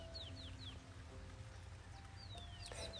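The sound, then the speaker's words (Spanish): Small birds chirp and sing in repeated short, high sweeping notes over a steady low rumble while soft rain falls, with some clucking fowl-like sounds mixed in. “Y los pajaritos que suavemente cantan las alabanzas al Señor.”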